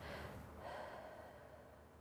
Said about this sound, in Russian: когда у нас начинаются схватки, любые первые, вторые, болезненные, неболезненные еще, а, нужно расслабить все тело максимально. Стоя ты делаешь это или сидя, просто расслабляешь все тело и начинаешь вот дышать